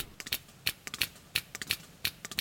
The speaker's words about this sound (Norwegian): Fra dypet har forsker Geir Pedersen ved Havforskningsinstituttet også plukket opp spermhval som klikker.